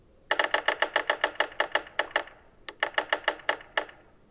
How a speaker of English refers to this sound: but even after all these years, I still use my binoculars to confirm any woodpecker identified by drumming except yellow bellied sapsuckers. They're unmistakable because they sound so uniquely arrhythmic.